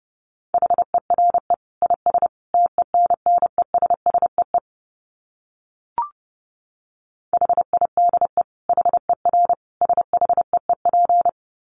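Fast Morse code at about 30 words per minute: a steady mid-pitched tone keyed in quick dots and dashes, two bursts of sending separated by a pause with a single click.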